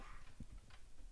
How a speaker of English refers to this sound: Okay, that's the dog upstairs. Good lord, I thought we were getting our own special effects sounding.